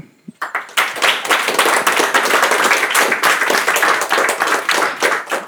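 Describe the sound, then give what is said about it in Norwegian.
After a couple of isolated claps, loud, dense applause from many hands breaks out after a poem reading and holds steady for several seconds, a crackling wash of clapping with no voices over it. “Jeg gir òg en applaus til Anne Marie Nøple.”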